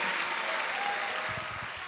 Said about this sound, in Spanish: Dale una aplauso al Señor, amado hermano.